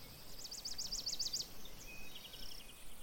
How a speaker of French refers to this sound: ces oiseaux qui vous chantent la vie